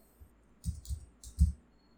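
Four quick keyboard key clicks on a computer while searching for Zach Lavin's age, arriving in two close pairs, fairly quiet with no talking.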